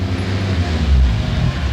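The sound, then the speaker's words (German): A bread delivery driver's vehicle pulling up and coming to a stop right in front of a warehouse on Ocean Boulevard in San Pedro, its engine a steady low rumble for a couple of seconds with no voices. “Direkt vor dem Lagerhaus hielt er an.”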